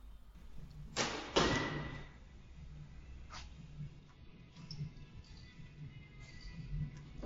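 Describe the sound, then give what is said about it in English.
Two sharp arrow impacts land close together on an archery target early on, with a bullseye hit, followed by a fainter third strike, with quiet outdoor ambience and no talking. “Beautiful bullseye.”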